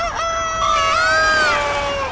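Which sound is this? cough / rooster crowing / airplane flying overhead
rooster crowing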